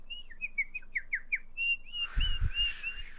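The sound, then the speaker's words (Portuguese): Someone whistles in imitation of a bird during a concert: a quick run of short chirping notes, then longer warbling whistles over a sudden burst of rushing, splashing water noise made as a sound effect. “Ela começou a cantar e eu comecei a fazer só sonoplastia na água e a fazer, como aquilo era um overhead, estava muito perto da água, eu comecei a fazer o passarinho ao mesmo tempo.”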